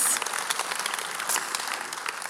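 A short burst of applause from a crowd, a dense, steady patter of many hands clapping at even volume, with no voices over it.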